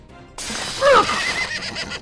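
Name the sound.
war horse neighing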